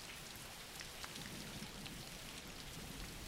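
Steady rain falls in a continuous, even hiss, with countless small drops pattering without pause. The texture stays constant and fairly soft throughout, and no voices are present.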